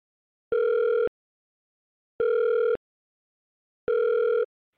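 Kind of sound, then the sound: signal or alarm, phone call ringing tone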